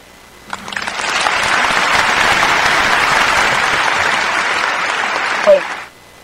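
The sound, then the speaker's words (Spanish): Steady, dense applause from a crowd on a Radio Melodía broadcast, starting abruptly and holding a loud even level for about five seconds before cutting off, with a brief voice near the end. “Y aplausos y superaplausos, sigo diciendo, esto es una cadena para los medios de comunicación como Radio Melodía”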